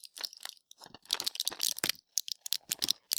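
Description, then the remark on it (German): Crisp plastic crinkling and crackling from a blister pack of Sinopret tablets being handled, a busy run of sharp, irregular crunches and snaps with short pauses, no talking. “Das ist so eine Tabletten. So ein Blister, Geschichte.”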